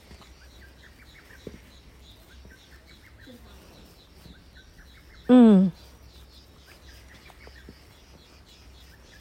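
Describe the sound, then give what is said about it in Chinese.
Birds sing steadily beside the speaker, one on the left and one on the right, with quick repeated high-pitched notes running through the whole stretch, outside a cultural and history museum with a mountain in view. A person briefly murmurs a loud 'mm' partway through. “你看，我们旁边有一只一只在唱歌的鸟，一直唱歌。左边也有一只，左边那个叽叽叽叽。右边那个，啾啾啾啾啾啾，”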